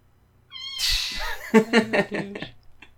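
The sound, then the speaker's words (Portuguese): A house cat meows: a faint high call, a breathy rustle, then a loud, drawn-out, wavering meow that trails off. No one speaks. “E você fez o quê? Miou o tempo inteiro.”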